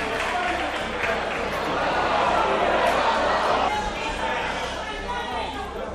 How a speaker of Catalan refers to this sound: Són sis convidats del Partit Popular que han fet gestos feixistes, malçada, semblava, i crits de Viva Espanya quan els han expulsat de la cambra.